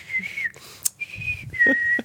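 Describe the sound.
Someone whistles a short tune in three sustained, clear phrases, each holding a steady high pitch with slight bends, fairly loud over faint low background rumble and a brief click.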